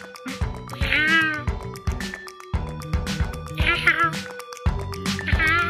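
A cat meows three times in a row, each call a rising, wavering wail, over a steady low hum with background activity between calls.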